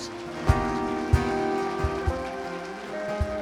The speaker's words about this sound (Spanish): ¿Cuántos están de acuerdo conmigo? Y le dar un fuerte aplauso a su Dios.